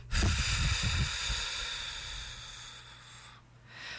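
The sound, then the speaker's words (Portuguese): A long, deep breath drawn in, followed by a forceful, airy exhale, done with eyes closed as a breathing exercise to control emotions. The breathing is loud and breathy, with no talking. “Inspire profundamente, ó. Agora solte de vez.”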